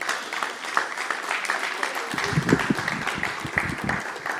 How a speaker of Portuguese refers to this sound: Recebam com uma salva de palmas, por favor.